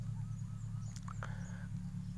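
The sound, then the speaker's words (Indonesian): Birds call faintly in the background, a few short honking, squawking notes rising over a loud, steady low hum that runs throughout. No one speaks. “banyak noise noise yang tidak diinginkan sebenarnya kalau lo denger lebih seksama banyak suara burung di sini”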